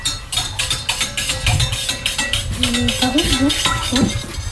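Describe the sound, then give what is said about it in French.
A hand whisk beats quickly against a bowl, blending a mixture, a steady run of bright metallic scrapes and clinks, with a faint voice murmuring underneath partway through. “Je délègue avec le fouet à main.”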